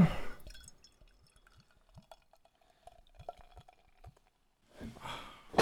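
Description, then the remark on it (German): Beer is poured from a bottle into a glass, with soft gurgling, trickling and a few small clinks, framed by breathy exhales at the start and end. “Haben wir eine ins Glas.”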